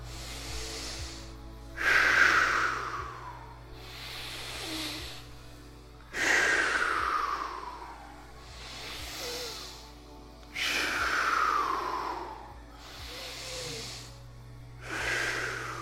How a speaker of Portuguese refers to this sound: Vai aumentando o ritmo. Coloca atenção, topo da cabeça e nos pés. Inspira no topo da cabeça, solta lá nos pés. Isso. Vai ficando cada vez mais rápido. Vai fazendo o barulho da respiração. Se tiver dificuldade pelo nariz, vai pela boca.